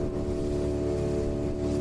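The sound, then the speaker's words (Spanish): A motorboat engine drones steadily as the boat heads from Cursá into the Cungost or Cañón de Monrevey on the Noguera Pallaresa river, a continuous low hum with strong tonal harmonics and no breaks, with no voices over it. “Desde Cursá nos adentramos en una lancha por el Cungost o Cañón de Monrevey.”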